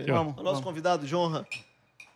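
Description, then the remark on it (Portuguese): Glasses clink together in a toast right after a man speaks. A few bright chinks follow, the first leaving a short ringing tone. “Fazer um brinde, fazer um brinde.”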